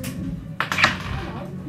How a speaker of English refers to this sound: Stop doing that with the dice.